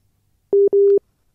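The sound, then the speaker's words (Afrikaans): A telephone busy signal on a dropped phone line: two loud, steady mid-pitched beeps in quick succession, the second slightly longer, with silence around them and no voices. “Ja, nee, lyk vir my as die probleem met daardie lyne, ek weet nie of ons gaan kyk of ons haar weer in die hande kan kry”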